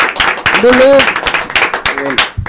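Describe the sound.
An audience claps steadily, the dense crackle of many hands filling the whole clip, with voices calling out and cheering over it.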